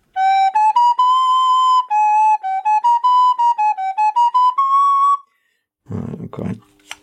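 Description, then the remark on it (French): A handmade wooden flute made by a flute maker on Mont Ventoux plays a lively melody of clear, breathy notes that step up and down for about five seconds, then falls silent before a burst of low rustling noise. “Sur le Mont-Ventoux, le facteur de flûte”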